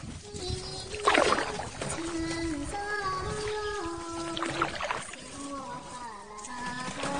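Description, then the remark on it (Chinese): A small boat being rowed slowly across a lake, with two splashing oar strokes a few seconds apart over steady lapping, while a young woman in green sings a little tune in a high, sustained melodic voice throughout. “忽听得湖中歌声不断，从碧波上飘来一叶小舟，一个绿衫少女口中唱着小曲，缓缓划水而来。”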